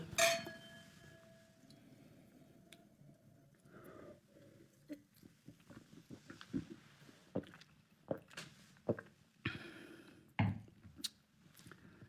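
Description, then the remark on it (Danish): Wine glasses clink once in a toast while tasting wine, a bright ring that lingers briefly, followed by quiet scattered taps, shuffles and sipping noises with no one speaking. “Prøv lige at smage. Skål. Skål.”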